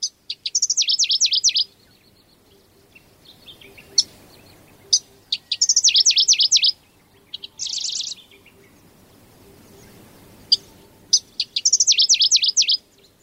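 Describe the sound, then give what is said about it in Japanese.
A Middendorff's grasshopper warbler in Toyotomi, Hokkaido, Japan, sings short, rapid, high-pitched phrases of buzzy repeated notes in loud bursts about a second long, separated by isolated sharp chips and brief pauses. “北海道豊富町のシマセンニュウをお届けします。”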